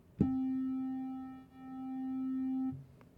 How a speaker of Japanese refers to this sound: ちょっと3つ聞き比べてみましょう。まず、え三角波